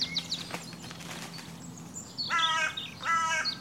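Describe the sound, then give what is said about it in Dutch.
Two loud, harsh crow caws close together near the end, following a stretch of faint chirps and twittering from other birds in the background. “Hoor ik daar nog een kraai? Ja, ik hoor wel vogels, maar ik zie ze niet.”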